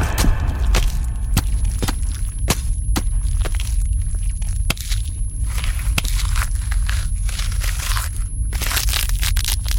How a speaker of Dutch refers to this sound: Rinkel, breek het glas!